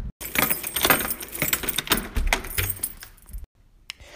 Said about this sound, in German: Ich sperre jetzt mal gerade hier das Studio auf, bin gerade vor der Tür gelandet und dann geht's weiter.